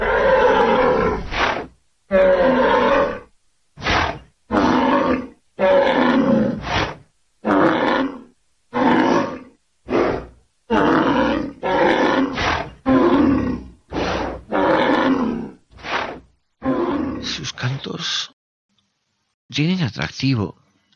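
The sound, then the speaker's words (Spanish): A rhinoceros bellows over and over, a long string of loud, rough roars in quick succession with short pauses between them, ending in a few higher, strained cries. “Escucha los berridos.”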